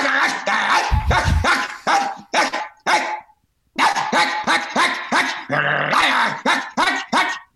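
A dog barks in rapid, loud bursts with deep growling mixed in, a brief pause midway, then the barking resumes in an intense volley.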